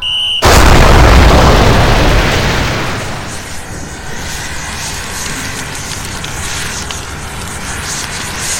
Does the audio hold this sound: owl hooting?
no